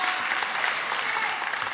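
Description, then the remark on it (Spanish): An audience in the auditorium of Osana Woodlands church applauds, a dense, steady wash of many hands clapping at even loudness for the whole short stretch, with no voices standing out. “Vamos, iba a aplaudir, le estoy chuleando demasiado,”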